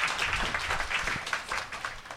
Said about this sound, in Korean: 박수로 환영해 주십시오.